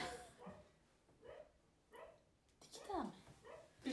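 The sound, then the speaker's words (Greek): A dog barks repeatedly in short, uneven bursts, moderately loud, with a couple of higher whiny yips near the end and faint voices in the background. “Γαυγίζει στα κάρβουνα, παιδιά δεν γίνεται.”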